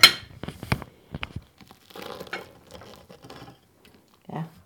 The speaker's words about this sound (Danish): sjove er, at jeg har også selv arbejdet i smørbrødsbutik gang, så det er altid sådan lidt som at komme hjem og sidde her og spise smørbrød.